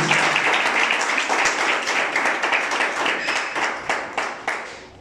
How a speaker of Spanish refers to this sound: Denle un fuerte aplauso al Señor por eso, porque Él es bueno con cada uno de nosotros.